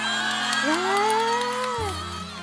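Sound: applause sound effect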